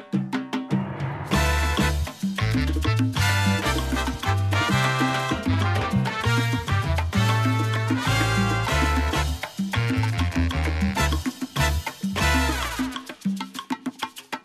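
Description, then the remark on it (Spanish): Loud, up-front old-school salsa with punchy trumpets and trombones over driving bass and percussion, playing continuously without any singing or talking. “una salsa al mejor estilo de la vieja escuela, donde encontramos tremendas moñas de trompeta y de trombón.”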